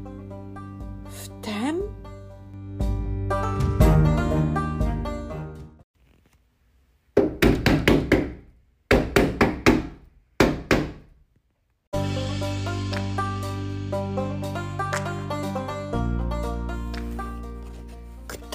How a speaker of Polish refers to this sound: Ktoś walił pięścią o szybę.